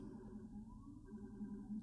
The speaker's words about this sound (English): Um, boy, something's going on out there. I don't know if you can hear the sirens, but